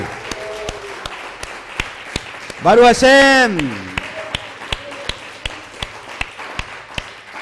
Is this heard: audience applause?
yes